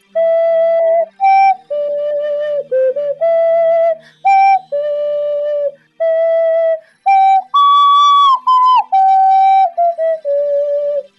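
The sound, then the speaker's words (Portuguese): A gentle, slow video game lullaby melody whistled clearly, with sustained pure notes stepping up and down in a lilting lullaby phrase and brief pauses between notes, no talking. “a música que ela ensina no começo é a Zelda Lullaby, que é a que a gente usa para abrir a cachoeira”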